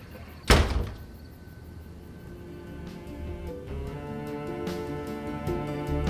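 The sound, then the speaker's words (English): A door slams shut once, loud, as someone leaves, with a sharp thud that fades quickly while soft steady tonal sounds continue in the background. “Just shut the door on your way out, okay?”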